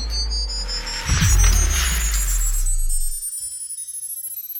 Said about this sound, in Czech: Zapínám telefon.